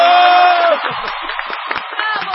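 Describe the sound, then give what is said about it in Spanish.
A crowd cheers and applauds loudly at the end of a Happy Birthday song, a sustained voice holding a note at first, then a dense wash of clapping with whoops and shouts running throughout. “¡Aplausos!”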